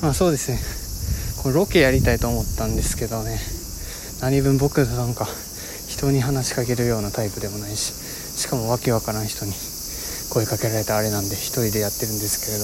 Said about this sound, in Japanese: 今めちゃめちゃセミ鳴いてますね